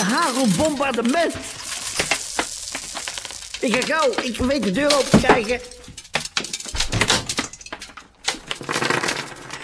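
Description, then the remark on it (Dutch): Hard, rapid ticking and clattering of very large stone beads, pebbles with a hole in them, striking window panes, dense and irregular throughout, with a person speaking hurriedly over the impacts. “Oh, je hoort het nu keihard tegen de ruiten tikken.”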